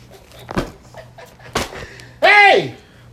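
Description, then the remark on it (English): Two sharp slaps on a face land about a second apart, followed right after by a loud, pained vocal yelp that slides downward in pitch. “Can you like slap yourself?”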